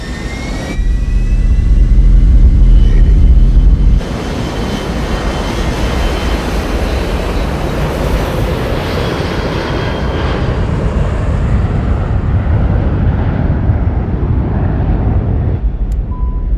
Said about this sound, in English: so we grabbed the sound crew, flew to uh, Arizona, got out on the tarmac with uh, a couple of A320s, recorded all the exterior taxing and all that, and then we boarded this this jet that was taken off to Texas.